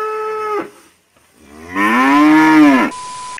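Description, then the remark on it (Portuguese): Two loud cow moos: a short flat low call, a brief pause, then a longer rising-and-falling bellow that ends abruptly, leaving a faint steady hum. “é, aí vi as vaquinhas do Ivo lá, o Ivo tem umas vaquinhas, uns cavalinhos.”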